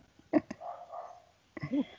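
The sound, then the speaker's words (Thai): House dogs barking at night, two sides barking against each other: two quick sharp barks, then a drawn-out whining yelp, and another burst of barking near the end. The sound is moderately faint, with no one talking. “หมาบ้านผมหมาหมาบวกกันอีกแล้วหมาชอบบวกทำไมชอบบวกตอนคืนนะแบบบางครั้งคนเดินผ่านไปผ่านมาแล้วก็อันครับอ๋อลวใครเห่าฝั่งไหนเห่าได้ดังกว่าฝั่งนั้นชนะอะไรเงี้ยมันจะมีสองฝั่งนะ”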